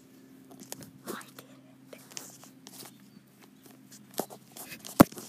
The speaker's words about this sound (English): I was able to successfully get the two things, and you heard it a tiny little clitter clatter of Lego bricks.